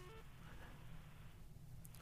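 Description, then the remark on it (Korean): A poor phone line cuts out into garbled, crackling low-end noise with faint electronic tones and brief beeps, the connection sounding broken with no clear voice coming through. “아, 이 전화가, 전화가 아, 상태가 너무 안 좋아가지고요.”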